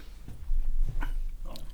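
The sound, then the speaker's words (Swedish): A small dog plays with a squeaky toy, with short squeaks and snuffling, chewing sounds over a low rumbling background. “Lilla hunden hittade en plinga.”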